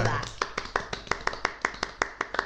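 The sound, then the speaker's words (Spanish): Hands clap in a quick, steady rhythm, about a dozen sharp claps, evenly spaced like a single person applauding, with a faint murmur underneath. “O de aplauso para nosotros”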